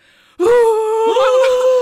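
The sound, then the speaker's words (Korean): A voice mimics the loud sobbing heard when a group was announced as first place: a sudden, sustained wailing cry that starts after a brief quiet moment, holding a strained pitch with a catching break midway, loud. “정말 오열의 소리가 들리는 거예요.”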